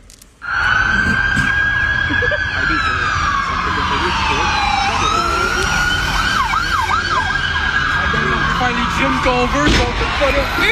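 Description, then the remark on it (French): Loud police sirens wail steadily at the end of a police car chase, then shift into a faster rising-and-falling yelp, continuous over a rumbling background for about ten seconds, filmed by a bystander. “je te fais écouter un extrait parce que la fin de la poursuite a été captée par un gars qui a entendu les sirènes qui s'est mis à filmer.”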